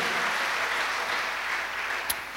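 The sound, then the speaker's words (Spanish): A crowd applauds steadily, a dense, even wash of many hands clapping together at a constant level, with one sharp, brighter clap popping out near the end. “Dale un aplauso y ponte de pie, amado hermano.”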